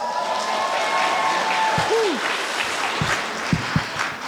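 At a graduation event hosted by Black Brand, a large crowd of graduates cheers and applauds for themselves, a dense wash of clapping with scattered whoops and shouts, a few sharper claps standing out near the end.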